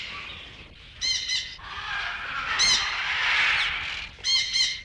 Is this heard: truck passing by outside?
no